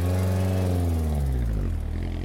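A taxi's engine drones loudly, its low humming tone holding steady and then sliding lower in pitch as the car drives to a hotel. No one speaks.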